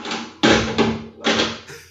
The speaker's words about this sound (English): That's the cats chasing the bee. knocking everything over.